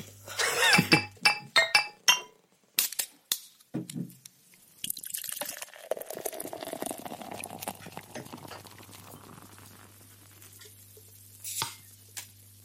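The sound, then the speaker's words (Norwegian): A quick run of sharp pops and clinks as caps come off beer bottles, followed by a steady gurgling pour and one last bright glassy clink near the end. Clear, no talking. “Det er alltid så artig å se hvor de eh, korkene havner.”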